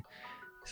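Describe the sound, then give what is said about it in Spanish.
A mobile phone ringtone plays a short, steady electronic melody at low volume, with a voice briefly audible at the start and end. “Bueno, ese es el móvil”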